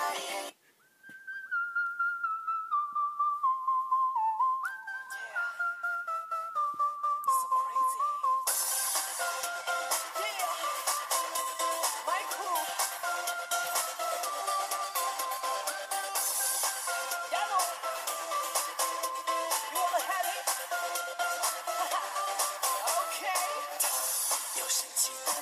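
A song's intro begins with a lone, whistle-like melody gliding downward for several seconds, then bright, loud, busy full-band pop music kicks in and carries on steadily without vocals.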